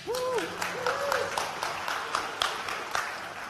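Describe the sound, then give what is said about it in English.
An audience breaks into steady applause for the Kids zone kids, many hands clapping in a dense, continuous wash, with a couple of rising and falling cheers or whoops near the start. “I want to give the Kids zone Kids a round of applause.”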